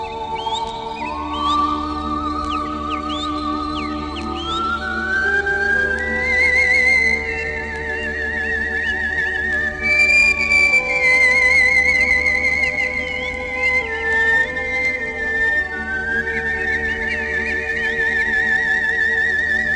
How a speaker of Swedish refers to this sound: Vad behöver vi veta innan vi lyssnar på det här? Um, ni kan ju försöka höra hur många fågelarter ni är här.